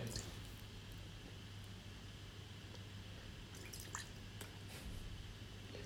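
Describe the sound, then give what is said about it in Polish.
Water drips in a quiet, irregular patter, a few soft plinks clustering toward the end, over a steady low background hum. “Słyszę kapanie.”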